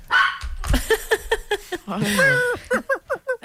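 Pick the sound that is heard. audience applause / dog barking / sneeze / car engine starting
dog barking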